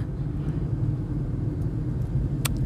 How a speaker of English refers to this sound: Oh, God, it's so difficult to uh, navigate a traffic circle at night when you're not familiar with the area.